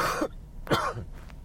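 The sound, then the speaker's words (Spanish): A person coughs and clears their throat, two rough bursts followed by a fainter third, with no talking around them. “hoy tengo un poquito de tos, ¿eh?”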